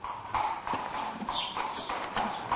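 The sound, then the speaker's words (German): Scraping and knocking as a 19-year-old thoroughly scrapes clean the hooves of the horse Le Marquis, with rough scratchy strokes and occasional hoof thuds on a hard floor, steady and busy throughout. “Auch die Hufe kratzt er gründlich sauber.”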